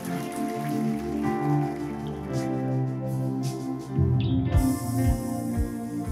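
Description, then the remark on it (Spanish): Steady applause from a church audience for the King, a dense crackling wash of many hands clapping, runs for several seconds over sustained, held musical tones, with no talking. “Ahora sí, iglesia, por favor, un fuerte aplauso al Rey tome su lugar.”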